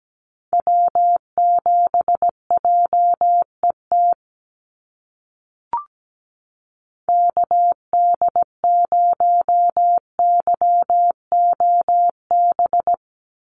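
Morse code of North American SOTA activator callsigns sent at about 17 words per minute: a steady mid-pitched tone keyed in quick dots and dashes, in two runs split by a short pause with a faint click.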